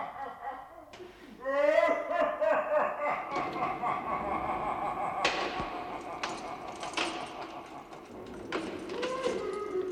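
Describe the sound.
Several sharp metallic bangs ring out as a heavy iron door slams repeatedly, over a busy mix of laughter and chattering voices that carries on throughout.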